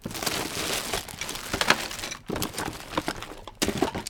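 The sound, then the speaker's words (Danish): Ten-sided dice rattle and clack against each other inside a bag as a hand rummages through them, a dense, continuous jumble of small hard clicks, fairly loud, with brief pauses. “Jamen, der er en del, men der er nemlig også noget andet i den her pose.”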